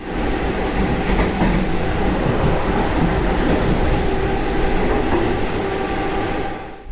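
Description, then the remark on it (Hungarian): A train rumbles through the Rákos railway marshalling yard, a loud, steady roar of wheels on track with scattered metallic clicks and clacks throughout, fading slightly at the end. No one speaks. “A közvetlen kocsi második részében köszöntjük a hallgatókat a festői Rákos rendezőállomásról.”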